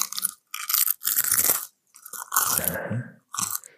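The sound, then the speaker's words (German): Loud crunching as someone bites and chews a crisp snack, coming in about five bursts separated by short pauses, with no talking. “Da muss ich noch mal einen essen, glaube ich.”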